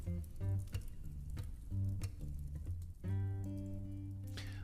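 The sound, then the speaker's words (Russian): A fireplace sound effect crackles with scattered pops and snaps, quiet and steady, beneath a sustained humming, music-like tone that fills the background. “На мобильных устройствах я не думаю, что этот камин там сильно слышно, но он таким фоном присутствует, и у вас э, визуальный образ плюс звук – а, складываются в одно, и вы не, даже не замечаете, понимаете, что это настоящий камин.”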